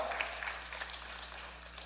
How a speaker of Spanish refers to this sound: ¿Por qué poquitos aplaudieron?